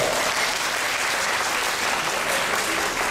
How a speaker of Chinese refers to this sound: 谢谢大家，我们再给他掌声，好不好？谢谢。